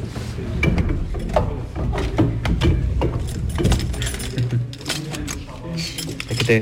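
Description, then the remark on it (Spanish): Keys jangle and clink in an irregular series of sharp metallic rattles and clunks as the lock of the Puerta de las Armas is worked and the door opens only slightly, fairly loud throughout with some faint background voices. “me gusta a mí los sonidos, como estamos en la radio, que se escuchen las llaves de la puerta de las armas, que se abren muy poquito”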